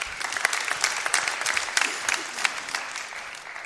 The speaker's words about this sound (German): Ja, kann man ruhig mal klatschen, genau.